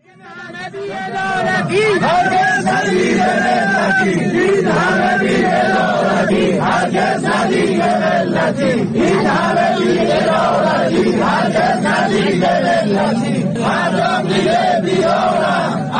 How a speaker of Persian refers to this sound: کشاورزان اسپان در ادامه اعتراضشان به برخوردار نشدن از حقابه در مقابل ساختمانهای مدیریت کشاورزی و استانداری اصفهان تجمع کردند